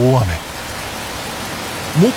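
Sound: rain falling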